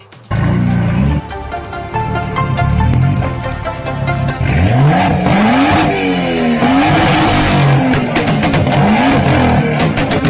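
A car engine revs loudly and repeatedly, rising and falling in pitch as it accelerates, with tires squealing amid a dense roar that fills the whole stretch without any talking, as a driver deals with climate protesters blocking traffic on a morning commute.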